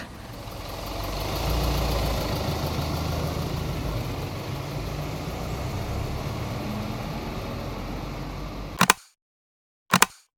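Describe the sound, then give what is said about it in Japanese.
The engine of a doorless bus heading north rumbles loudly and steadily for about nine seconds, mixed with road and wind noise, then cuts abruptly to silence broken by two brief bursts. “北へ向かうバスで今日取材させてもらう移民の家バリオブラボーを目指しますいやすげえな大丈夫かこれドアがないんすよこのバス”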